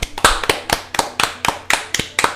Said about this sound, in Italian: Bravo, bravo. Applauso, quello. applauso.